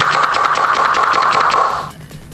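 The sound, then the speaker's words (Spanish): A rapid, mechanical rattle of repeated tool strikes, like a stapling or hammering tool firing in quick succession, runs steadily and fairly loud for about two seconds, then cuts off. No one speaks. “Es como un martillo, ¿verdad? No, es algo como tipo que hace grapa, grapa algo así.”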